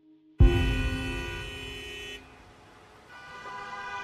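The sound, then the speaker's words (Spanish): A loud car horn blares suddenly for about two seconds over a low rumble of big-city traffic, then fainter horns keep honking in the background, one rising again near the end. “Desde el tráfico en las grandes ciudades”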